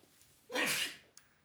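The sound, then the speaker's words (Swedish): A single sharp, loud sneeze, a brief burst of breathy noise followed by a faint click, with no talking. “Prosit. Prosit.”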